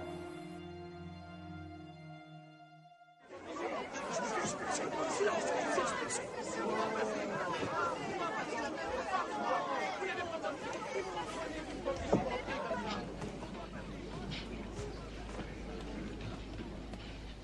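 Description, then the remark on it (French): A dense murmur of many voices fills a packed courtroom at 12:45 at the trial of Landru, steady and continuous, with overlapping chatter and occasional louder bursts, after a few seconds of tonal music fades out. “à 12h45, la salle d'audience est bondée.”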